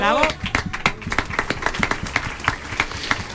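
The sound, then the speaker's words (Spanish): An audience in the courtyard of the Diputación breaks into sustained applause for two radio technicians, many hands clapping in a dense, irregular patter that stays fairly steady throughout, with a brief high whistle-like tone at the very start. “a los que les pido un aplauso enorme.”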